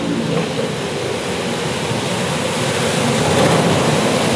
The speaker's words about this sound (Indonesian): truk gua lewat mulu ya kenapa ya kan lagi malas Bray ini truk ya Allah nah ini ada si boy yang lewat